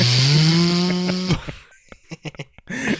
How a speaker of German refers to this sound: Ich mach mal die Dunstabzugsaube an, stört dich, ne?